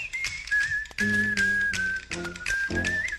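A bright, steady whistle carries an upbeat jazz melody over a bouncy instrumental accompaniment, loud and close, with no one speaking.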